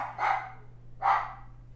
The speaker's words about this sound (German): sie bellen ja zum Glück nicht so extrem viel. Nur wenn sie halt spielen, also vor allem wenn wir mit ihnen spielen, weil sie dann ungeduldig werden.